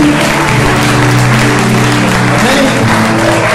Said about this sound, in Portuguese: Pode a salva de palmas Amém?